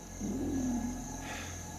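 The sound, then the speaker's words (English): A hyena lets out one drawn-out, low-pitched scream that slides and wavers for about half a second before fading, over a steady background hum. “Did you hear that scream? No, it's a, it's a hyena.”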